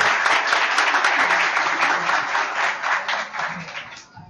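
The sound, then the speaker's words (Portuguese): A crowd applauds steadily as guests are invited to join the panel, a dense wash of many hands clapping at an even level before thinning out slightly toward the end. “Uma salva de palmas.”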